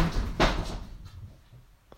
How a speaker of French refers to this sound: ça c'est mon chat qui s'amuse